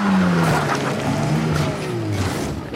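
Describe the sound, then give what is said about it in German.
A car swerves off the road into a roadside ditch, its loud engine droning at a slowly falling pitch while short bursts of tire squeal and skidding cut through, with no voices. “Dann erschrickt er so, dass er wegen diesem Satz in den Straßengraben fährt.”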